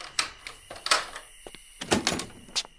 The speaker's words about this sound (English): So I used the key on the door and heard the lock grind as it unlatched from the hinges.